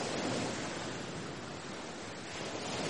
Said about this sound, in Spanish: Luego acabó todo, y no quedó más que la oscuridad y el ruido del mar golpeando las rocas desnudas.